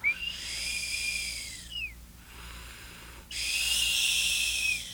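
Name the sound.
imitated whistling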